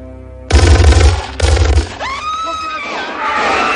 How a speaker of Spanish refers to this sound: Los hombres armados entran. Desde el cuarto de baño, con el teléfono aún en la mano, John escucha los disparos.